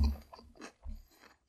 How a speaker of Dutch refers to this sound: Ga je deze halve komkommer wegwerken of is dit het laatste hapje?